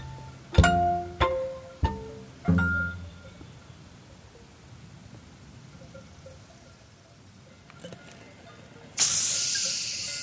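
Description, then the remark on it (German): A few ringing glass clinks, then a quiet pause before a carbonated tonic water bottle is opened with a sharp, loud fizzing hiss that carries on to the end. “Tonic. Oh, Tonic sogar.”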